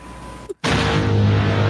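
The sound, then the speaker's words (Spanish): A brief hush, then a single deep explosion sound effect played from a soundboard bursts in loud, leaving a heavy booming rumble that lingers and roars on without fading. “Uh, es más, déjame le subo tantito la carga sísmica, güey.”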